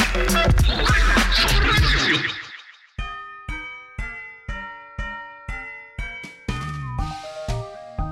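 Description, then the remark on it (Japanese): Loud, close crumpling rustle for about two seconds, then a brief pause and a sequence of bright, evenly spaced plucked musical tones. “結構このぐしゃぐしゃこテぐしゃぐしゃこテぐしゃぐしゃこテてるんですけどうるさいっすか”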